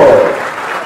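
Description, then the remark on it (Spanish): A crowd at a Peronist political event applauds loudly for Guillermo Silva, pre-candidate for provincial senator for the sixth section, a dense, steady wash of clapping that carries on without a break and eases only slightly toward the end. “Los aplausos para nuestro pre-candidato al senador provincial por la sexta Guillermo Silva.”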